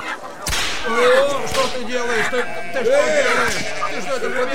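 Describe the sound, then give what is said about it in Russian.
A whip made of ropes cracks sharply and loudly a couple of times as animals are driven out of a temple, over a busy backdrop of bleating animals and murmuring voices. “Тогда Иисус, сделав бич из веревок, стал выгонять из храма всех животных”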